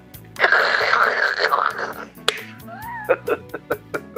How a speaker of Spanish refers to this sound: la gente tiene que escuchar la botellita, vamos a darle para Salud. Bueno, esto es de lata.